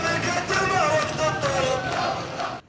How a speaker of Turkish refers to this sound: Bomba sesleriyle inleyen sokaklar Rusya'da imzalanan mutabakatın ardından ateşkes kararıyla sakin. Hayat normale dönüyor. Sokaklarda şimdi sadece sevinç çığlıkları duyuluyor.